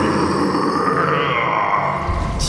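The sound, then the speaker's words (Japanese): A monster's roar, voiced by a person: the monster king, newly freed, roaring as its body grows bigger and bigger. One long, loud, gravelly growl that holds steady for over two seconds and swells slightly at the end, with no other sounds around it. “自由の身になった怪獣大王が雄たけびを上げるとその体はどんどんどんどん大きく山よりも高く虎よりも強くなっていきました”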